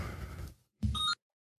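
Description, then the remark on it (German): A single short electronic telephone ring, a bright warbling tone lasting about a third of a second, heard clearly right after a brief burst of rustling noise fades out. “Telefon.”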